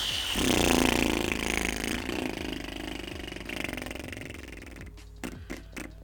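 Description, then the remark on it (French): A voice imitates a motorbike struggling to start: a rough, rattling, sputtering drone for several seconds, fading, then a few short coughing bursts as the engine fails to catch. “ah, c'est une voiture qui a une moto qui a du mal à démarrer”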